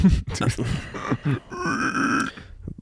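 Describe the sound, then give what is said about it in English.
A person imitates a pig with their voice: a few rough, snorting grunts, then a sustained, strained high squeal that holds for about a second before cutting off. Fairly loud. “Can you do like a pig squeal?”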